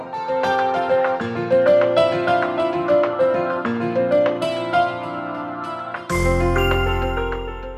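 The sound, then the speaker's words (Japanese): A bright, upbeat piano jingle plays alone, with quick melodic notes climbing along before a full, loud chord with deep bass lands near the end. “ピアノの音で右肩上がりの人生を”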